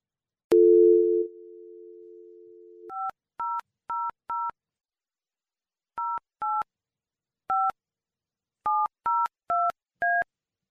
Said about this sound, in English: as I'm driving in, I Google the number for Northfield Bank and I call them. And this is the beginning of the message that I hear.